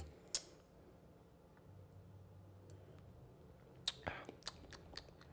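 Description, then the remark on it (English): Quiet mouth sounds of someone sipping and tasting a 2018 wine: a soft smack early on, then a cluster of small wet clicks and lip smacks toward the end, with no talking. “Let's let's see what, what this tastes like”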